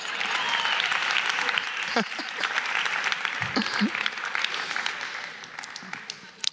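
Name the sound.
audience applause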